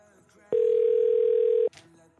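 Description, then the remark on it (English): A loud, steady telephone dial tone holds for just over a second, cutting in and out abruptly against a quiet background murmur, as a phone call fails to connect. “They block my number?”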